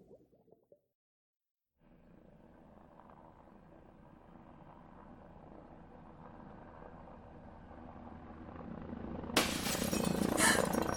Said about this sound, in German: Komm schnell! Jemand hat das Fenster eingeschlagen.